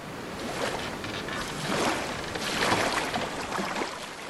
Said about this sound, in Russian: Разбежавшийся пароход — с мягким стуком ударился в тускло освещенную пристань. И они чуть не упали друг на друга. Над головами пролетел конец каната, потом понесло назад, и шумом закипела вода. Загремели сходни.